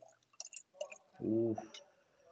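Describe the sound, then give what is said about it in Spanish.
A few small clicks and taps, then a short gurgling pour of wine into a glass as a refill, its tone rising briefly as it fills before fading out. “Ya, refil de vinito aquí”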